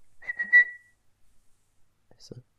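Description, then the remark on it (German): A person gives a short, high, squeaky whistle, a single steady tone lasting under a second, imitating a guinea pig's call, followed by a few faint rustles and clicks. “Meerschweinchen. Aber die fiepen doch.”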